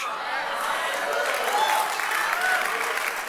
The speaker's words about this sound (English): It's a Jesus meeting and we respond and we clap. You know why? Because a quiet church is a dead church.